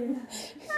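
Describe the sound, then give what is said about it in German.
A single quick sneeze, a short voiced intake followed by a sharp, breathy burst, moderately loud, with a trace of voice trailing after it. “Gesundheit.”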